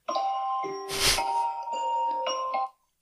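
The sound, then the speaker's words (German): An alarm clock rings with a melodic electronic chime, sustained tones shifting pitch for nearly three seconds, fairly loud, with a brief rustling burst partway through. “Ich möchte nicht darüber sprechen, dass mein Wecker jetzt geklingelt hat.”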